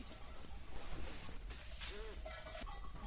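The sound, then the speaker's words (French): A few short bleats from ewes being given hay sound inside a busy farm barn, rising over a steady wash of rustling and background noise, with one wavering call standing out near the middle. “Je finis de donner le ah. foin parce qu'il y a des brebis qui n'ont pas le foin.”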